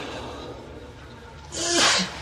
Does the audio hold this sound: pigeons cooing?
no